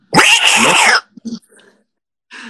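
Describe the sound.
A person voices one loud, drawn-out cat-like meow lasting about a second, followed by a few short breathy vocal noises and a brief murmur at the end.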